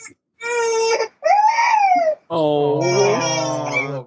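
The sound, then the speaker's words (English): A baby cries loudly, angry because his mother would not touch the keyboard, in three drawn-out, wavering wails separated by short breaths, with a voice briefly exclaiming near the start. “Well, he got mad because mommy wouldn't touch the keyboard.”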